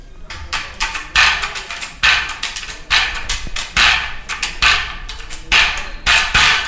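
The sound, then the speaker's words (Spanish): A donkey jawbone, cleaned in an anthill or dried with lime, played as percussion: a loud series of sharp rattling strikes in a loose rhythm, each hit buzzing briefly before the next, with no talking. “Pero quijadas de burro.”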